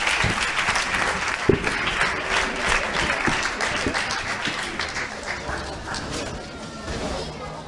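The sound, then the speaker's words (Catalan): An audience claps steadily throughout, a dense, even patter of many hands that holds at a fairly loud level with a few sharper claps standing out, fading slightly toward the end, applauding the organizations whose members are about to present their projects. “Per tant, aplaudir-les i a seguir.”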